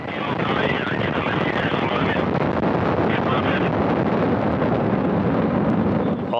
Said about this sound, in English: Engines uh, performing nominally a good roll, pitch, and yaw program reported from the blockhouse at Baikonur. Good control of the vehicle good vehicle stabilization reported. The Soyuz delivering 102 tons of thrust from its first stage engine